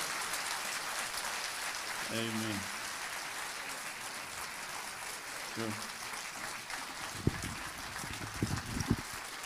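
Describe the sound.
A church audience applauds as a praise to the Lord for a family, a dense, steady wash of clapping that fills the whole stretch, with a couple of brief voices calling out over it.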